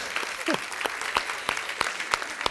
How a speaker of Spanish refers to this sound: Y son, vamos a darle, un aplauso a los que escuchan. ¿Verdad? Gracias.